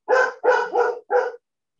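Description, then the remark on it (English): The speaker's dogs bark in the background in a quick run of four sharp, fairly loud barks, the middle two nearly running together, then silence. No talking is heard. “and that's like my dogs in the background”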